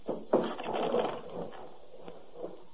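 A wooden hut door creaks as it is pushed open, a rough grinding sound that swells for about a second and then fades into quieter scraping.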